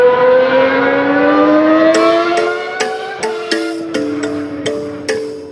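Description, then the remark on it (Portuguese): A loud stock car racing engine at a Stock Car race in Cascavel, Paraná, Brazil revs up with a steadily climbing whine, then rattles through a quick series of gear shifts, each marked by a sharp crackle and a drop in pitch. “Felipe Massa foi o vencedor ontem da segunda corrida da Stock Car, na 11ª etapa, em Cascavel, no Paraná.”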